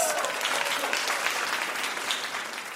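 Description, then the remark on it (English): Steady audience applause on a game show after a correct answer fills the whole moment, a dense, even wash of many hands clapping with no pauses or rise and fall. “Cash cow, that's right.”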